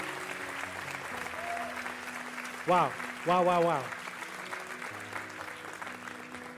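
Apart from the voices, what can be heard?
audience applauding and cheering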